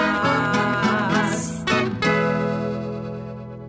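A rock band plays the closing bars of an anthem, with a cymbal crash and drum hits before a final full chord rings out and slowly fades. No one speaks.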